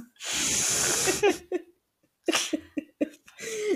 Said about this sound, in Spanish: Mi perro está soñando. ¡Ay, mi amor! es que dije yo, ¿qué se ese ruido? Pensé que era mi gato en plan arrastrando algo.